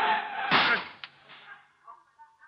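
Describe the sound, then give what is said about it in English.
A car brakes hard with a loud, rushing skid, then hits a hydrant with a heavy thud of impact, a sharp clank, and a few fading rattles as things settle. No one speaks. “Well, the brakes certainly work all right. You hardly touched that hydrant.”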